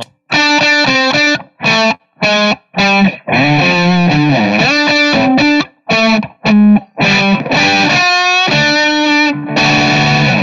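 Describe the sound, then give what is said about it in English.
Overdriven electric guitar through the Marshall channel, a '68 Marshall plexi amp, played loud and alone, with short punchy chord stabs separated by brief gaps, then longer ringing chords and sustained notes toward the end. “Um, and then the Marshall Channel, you got basically have a blues breaker and a 68 plexi.”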